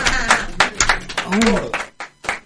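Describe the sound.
A short burst of hand clapping on a radio program for a birthday, sharp irregular claps from a few people, with a voice briefly talking or laughing over the middle of it.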